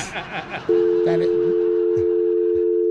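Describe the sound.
A person speaks briefly, then a loud, steady telephone tone starts as a call is dialed and holds unbroken to the end, clear with faint background noise.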